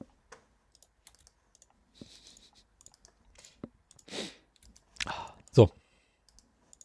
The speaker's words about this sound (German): ich bin noch am Tippen. So, jetzt. Äh, weißt du, ich kann nicht so schnell schreiben und tippen.